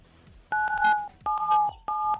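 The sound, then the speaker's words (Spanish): Three loud, clear telephone keypad tones dial the number 977, each steady dual-pitched beep lasting about half a second, separated by brief gaps, with faint background murmur before the first press. “Bueno, digita 977.”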